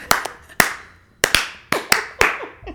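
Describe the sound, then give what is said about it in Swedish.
Someone claps their hands, about eight sharp, crisp claps in a slightly uneven rhythm, loud and dry with nobody talking. “men alltså vet du vad, jag ska ge dig en fet applåd så blir det bra.”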